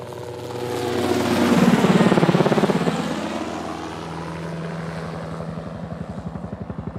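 A helicopter roars in flight, its engine whine and rotor thumping swelling loudly, then settling into a steady, rapid chopping pulse that continues throughout with no one speaking.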